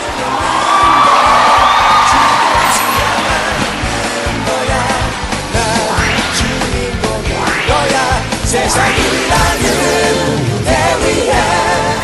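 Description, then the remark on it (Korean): A large audience applauds and cheers loudly and steadily for the whole stretch to welcome a show's guest, dense clapping overlaid with whoops, shouts and rising excited yells, with no clear speech. “야, 뭐 박소리가 굉장히 큽니다.”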